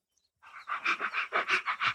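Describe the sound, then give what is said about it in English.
A child imitates a panting puppy with quick, breathy huffs, about eight rhythmic pants in a steady run after a brief silence, fairly loud. “I love to play puppy.”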